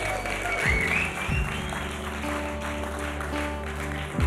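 A church audience applauds its leaders and technical staff steadily for about four seconds, a dense, even wash of clapping with a voice faintly audible beneath it.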